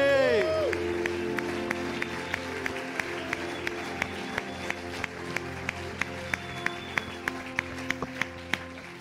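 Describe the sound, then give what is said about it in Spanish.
An audience claps loudly and steadily in applause to the Lord, a dense wash of applause with sharp, regular beats cutting through, while a sustained musical tone and voices linger underneath at the start. “Fuerte, ese aplauso al Señor, fuerte, fuerte, fuerte.”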